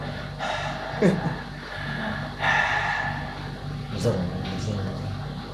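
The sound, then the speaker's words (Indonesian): A voice mimics the heavy, rasping mask breathing of Darth Vader from Star Wars, with long hissy inhales and exhales repeating in slow cycles, fairly loud, with brief vocal noises in between. “Yang gue tau tuh Darth Vader tuh kalau napas ada suara.”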